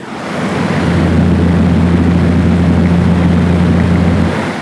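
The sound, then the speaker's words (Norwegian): An indoor fan blows loudly right up against the microphone, a steady rushing roar with a low humming drone underneath, holding constant for several seconds with no talking. “Det er sånn du vil høre hvis du går nærme en vifte.”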